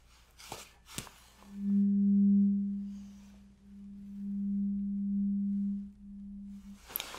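A steady, pure low hum of a struck tuning fork rings out twice during a hearing test, each tone sustained a couple of seconds with a soft swell, framed by brief taps and clicks.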